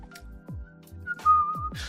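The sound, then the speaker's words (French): Someone whistles a short melody, a thin, clear tone shifting between a few notes, with soft low thumps pulsing underneath. “Oui, je sifflote.”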